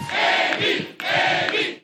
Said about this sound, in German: Selbst bei Andrew Young wurde diese Woche gejubelt und das, obwohl es gar nichts zu jubeln gab.